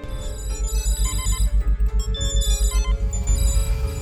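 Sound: mobile phone ringing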